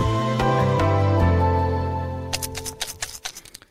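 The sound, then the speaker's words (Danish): Small biochar granules rattle inside a shaken pill jar in a quick series of crisp bursts, following a sustained musical tone that fades out. “Ja, det lyder lidt som en pakke med piller eller nogle mintpastiller, og det er faktisk også lidt et pilleglas, det er i, men det er ikke nogen af delene.”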